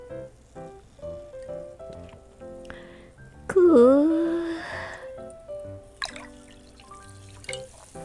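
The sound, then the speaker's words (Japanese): Unsweetened carbonated water is poured briskly into a glass of blueberry shaved-ice syrup drink, the trickle rising in pitch as it fills, followed by a soft, crackling fizz of bubbles, with light background sound. “ちょっと炭酸を足したりしてね炭酸を勢いよくコップに注ぐとものすごくこう泡は泡が弾くんですよ”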